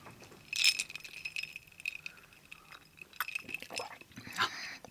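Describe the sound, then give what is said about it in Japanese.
Glasses of green tea mixed with iichiko shochu clink together in a toast, a few bright ringing taps spread across the moment, with soft rustling and movement in between. “いいちこと緑茶で作った緑茶杯いい茶効を片手にスタートですじゃあ乾杯乾杯”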